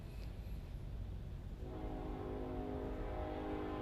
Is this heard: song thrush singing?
no